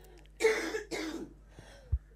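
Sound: coughing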